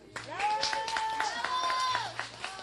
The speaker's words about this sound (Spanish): Denle un aplauso.